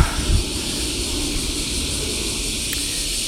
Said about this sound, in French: Putain, mais ils s'y mettent tous aujourd'hui, les avions, les machins, les trucs. C'est de la folie.